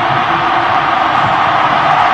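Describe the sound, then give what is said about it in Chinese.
A huge crowd of protesters in South Korea, protesting against President Park Geun-hye, roars and chants together, a loud, dense, steady wash of voices with no single speaker standing out, sustained without a break. “来，一起感受一下这三伏海啸的抗议声。”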